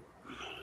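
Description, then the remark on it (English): A dog gives a brief, soft vocalization, a short whine or yip, fairly quiet and heard on its own with no talking. “Oh, you have a dog. Show me the dog.”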